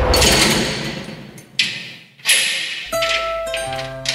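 A heavy metal prison cell gate slams shut with a series of loud clanging impacts and a sliding scrape, the last bang leaving a sustained metallic ringing that echoes.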